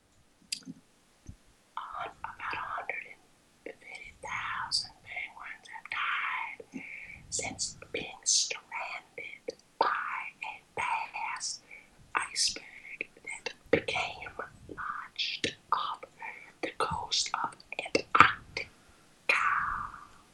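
ASMR whispering

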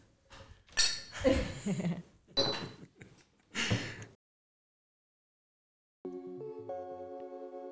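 glasses clinking

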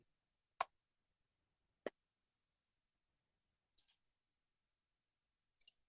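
mouse clicking

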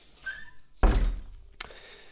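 door being shut

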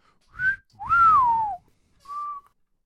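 person whistling

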